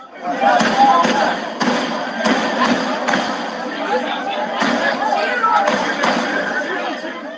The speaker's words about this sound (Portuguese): Bares e restaurantes ainda estavam lotados na região quando os tiros começaram. Nesse vídeo, dá para ouvir nove disparos.